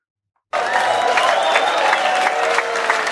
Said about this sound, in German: Äh, warte mal, äh, soll man, da, da muss man doch äh, Applaus dazu geben, oder?